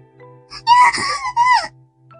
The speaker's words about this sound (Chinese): 耳中听见那女孩的一声尖叫